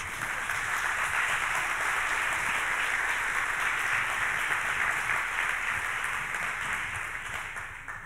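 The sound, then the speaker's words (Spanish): An audience applauds for Jesus during a sermon, clapping steadily for about eight seconds, a dense, even wash of many hands clapping that holds its level before easing slightly at the end, with no one speaking. “Da un aplauso a Jesús.”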